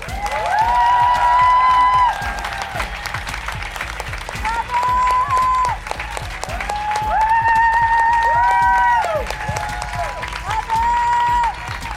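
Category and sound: crowd, audience applause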